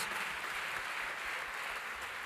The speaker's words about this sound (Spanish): ¿Cuántos dicen amén? Fuerte ese aplauso al Rey de Reyes y Señor de Señores.